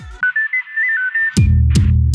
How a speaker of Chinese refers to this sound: 我干，那下大声啦，靠腰哦。 这很像那种上开会或干嘛，然后突然铃声响起。